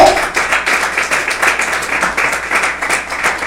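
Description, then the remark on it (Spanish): A church audience claps together as an offering of applause to the Lord, a dense, steady burst that holds loud and even for several seconds, with no voices rising above the clapping. “La ofrenda de palmas al Señor, hermano.”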